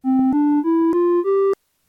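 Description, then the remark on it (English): A simple musical scale of five steady tones rising step by step, each note clear and loud with rich harmonics, played alone over about one and a half seconds. “Say I was listening to a simple scale.”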